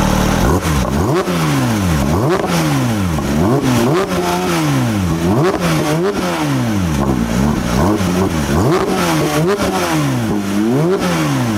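A loud car engine revs over and over, its pitch sweeping up and down in repeated surges with a raw, rumbling, penetrating growl and no talking.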